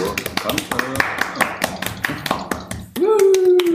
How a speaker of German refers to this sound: Ein kleiner Applaus, danke.